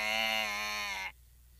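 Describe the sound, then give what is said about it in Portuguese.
A voice imitates a choked little bird: one strained, buzzy, nasal cry held steady for about a second, loud, then cut off abruptly into near silence. “Ah, ai, ai, eu acho que é, é, é, é a voz daquele passarinho, aquela voz engasgada dele.”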